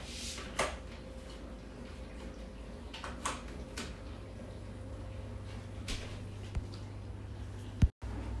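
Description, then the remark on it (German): A steady low mechanical hum with sloshing water and occasional soft clicks and clatters from a dishwasher running at home, fairly quiet and continuous throughout. “Tut mir leid, dass es gerade ein bisschen laut ist. Bei uns läuft nämlich gerade die Spülmaschine.”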